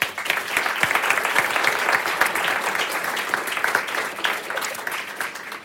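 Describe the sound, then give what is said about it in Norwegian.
An audience applauds steadily for several seconds for the panel guests just introduced, a dense wash of many hands clapping together, sustained and fairly loud without any voices. “Gi dem en applaus.”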